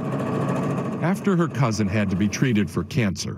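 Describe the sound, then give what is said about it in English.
A sewing machine, used by an 11-year-old girl in Freehold, New Jersey, hums steadily on its own for about a second, then keeps whirring at a fairly even level underneath a person speaking over it. “wait till you hear her humming.”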